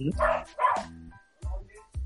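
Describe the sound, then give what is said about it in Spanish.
A visiting dog barks on a rooftop: two quick, loud barks, a brief pause, then two shorter, softer ones, heard on their own with nothing else going on. “No, es que me visitó un perro.”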